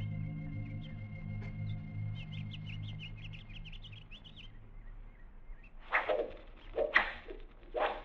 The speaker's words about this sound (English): Arrows. They're shooting arrows. What'd you expect? They're Indians.